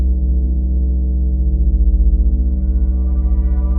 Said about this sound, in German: Du hast jahrelang einem Phantomton hinterhergejagt und irgendwann entscheidest du dich für die Erklärung, mit der du eben am besten leben kannst.